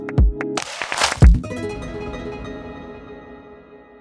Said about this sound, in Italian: Io direi a questo punto di eh, lanciare il gingolino